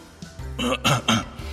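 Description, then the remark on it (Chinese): An old man gives a soft, low cough, a short throat-clearing sound in three quick, breathy bursts, fairly quiet and heard alone without talk. “微微的咳嗽了一声”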